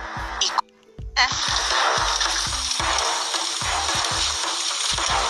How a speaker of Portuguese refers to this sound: E colocou uma grande panela de água.